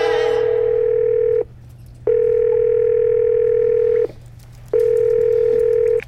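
A telephone ringing tone heard through the line: three long, steady electronic buzzes separated by brief silences, loud, with no one speaking.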